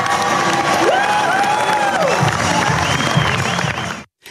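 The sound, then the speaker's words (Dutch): A crowd bursts into loud, steady applause at the AMA Mediatalent van het jaar award ceremony as the winner is announced, mixed with high cheers and whoops, sustained for about four seconds before cutting off abruptly. “Je hoorde een klein stukje van de uitreiking van de AMA Mediatalent van het jaar.”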